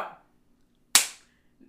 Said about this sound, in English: I love the clap.